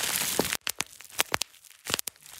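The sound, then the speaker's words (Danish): Bubble wrap crinkles loudly, then a handful of sharp, crisp pops go off at irregular intervals, some in quick pairs, with brief quiet gaps between them. “Bobleplast sådan ret lækker lyd.”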